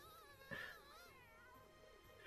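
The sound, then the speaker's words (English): A cat meows in a long, wavering, drawn-out call that rises and falls in pitch, fairly quiet and heard alone with no talking, with a brief sharper cry at the very end. “That cat needs its own movie.”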